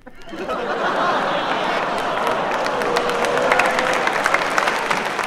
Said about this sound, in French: Bon. Là, on sent le grincement du public, en fait, mais le public applaudit et les cyniques font ce gag.